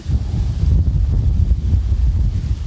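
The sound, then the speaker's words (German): Steady wind buffeting a microphone outdoors during charcoal grilling, pulling the burning coal away fast; a loud, continuous low rumble with gusty fluctuations and no voices. “Ja, und der Wind ist jetzt natürlich eigentlich unser Feind.”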